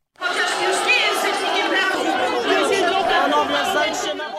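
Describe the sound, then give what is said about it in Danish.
A dense outdoor crowd of protesters on the streets of Poland, demonstrating against the sitting government, murmurs and calls out at once, a steady wall of many overlapping voices with occasional louder shouts rising above, sustained throughout. “mange polakker øh, igen på gaden i protest imod den siddende regering, som de så siger, de frygter øh, vil trække Polen ud af EU.”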